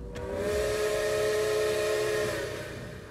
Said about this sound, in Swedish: Du hör tågvisslan komma närmare.